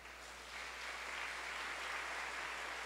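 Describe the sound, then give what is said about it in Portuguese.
A church audience breaks into steady applause at the priest's call. The applause swells after a moment and holds, a dense wash of many hands clapping. “Olha, quanta gente com promessa aí, glória, dê uma salva de palmas.”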